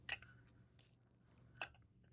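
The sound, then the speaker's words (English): Someone takes a quiet sip of water: two soft, wet mouth clicks and gulps about a second and a half apart, over a faint low hum, with no talking. “Water.”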